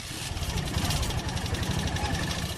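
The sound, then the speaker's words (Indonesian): A small three-wheeled vehicle with a garbage bin on the back, used to haul rubbish from homes to a temporary dump, runs its engine steadily, a continuous mid-pitched rattling drone with a pulsing low-end throb and a broad noisy hiss, fairly even in loudness, with no voices. “Sebuah kendaraan roda tiga dengan bak sampah di belakangnya.”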